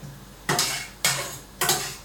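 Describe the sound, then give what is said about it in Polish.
A spoon scrapes through cream and onion in a pan on a burner, three even stirring strokes about half a second apart, each with a wet, gritty swish. No one speaks. “Gotuje się woda mi już na makaron, więc rozmieszam tylko”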